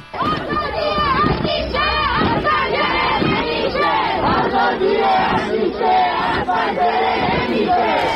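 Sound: protesters chanting a slogan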